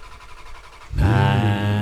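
A car engine cranks and catches, bursting into a loud, steady rumble after a second of quiet background noise, then holds a throaty idle.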